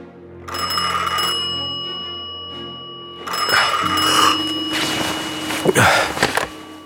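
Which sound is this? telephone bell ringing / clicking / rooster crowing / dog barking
telephone bell ringing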